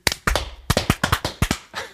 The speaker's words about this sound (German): Und wir waren nicht aber mal synchron beim Klatschen.